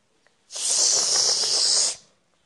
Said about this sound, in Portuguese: É, a chuva.